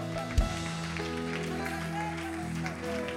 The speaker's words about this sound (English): Yes, Lord, let's give the Lord a hand clap of praise all around this room right now.